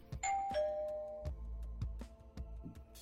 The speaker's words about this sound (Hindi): एक दिन सुबह दरवाजे की घंटी बजी